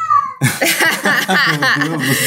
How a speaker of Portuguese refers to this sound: Não adianta, eu começo a gravar, o gato, o gato começa a miar. Não, não tem jeito, é isso aí. Gatinhos, gatinhos miam, é da natureza deles. É o tipo de participação que ele consegue fazer no programa, tu tem que entender isso.